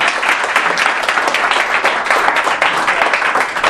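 A crowd applauds steadily after a speaker asks the audience for a round of applause, many hands clapping in a dense, loud, continuous patter with no voices standing out for the whole few seconds.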